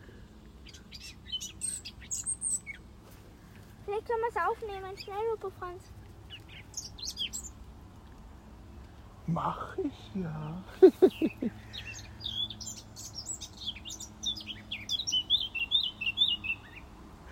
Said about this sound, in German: Na, weißt das viel zu erzählen, das Vogel. Na, du bist ein liebes Vogel.